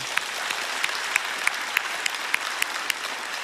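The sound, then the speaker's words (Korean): Sustained applause from a large crowd giving a clap of glory to God, a dense steady wash of clapping with a few sharper individual claps standing out at fairly regular intervals throughout. “우리 하나님께 영광의 박수 올려드리면 좋겠어요.”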